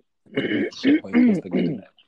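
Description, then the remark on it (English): A person clears their throat in a few short, gravelly voiced bursts over about two seconds, with no other sounds around. “I'm just just clearing my throat.”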